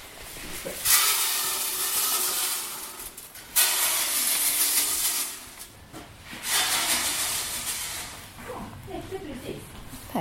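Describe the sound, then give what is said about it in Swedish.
Very small feed pellets are poured out into troughs in long, steady rushing bursts, a bright hissing cascade that stops and restarts several times, with a softer scattered rattle near the end. “så, nu ska jag lägga det här, hälla ut i rännorna.”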